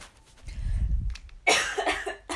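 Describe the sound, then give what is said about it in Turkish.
A person coughs, a low rumbling throat sound followed by a sharp, forceful burst and a couple of rough follow-up coughs. “Gerçekten bütün gün öksürmedim.”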